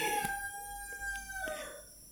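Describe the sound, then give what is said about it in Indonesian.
A rooster crows once, a long, strained, sustained call that slides down in pitch near the end, with no one talking. “Ditutup dengan suara ayam berkokok.”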